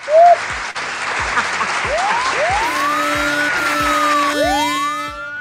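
Steady, dense applause fills the whole stretch, joined by several bright rising whistle-like sweeps and a few low rhythmic thumps underneath.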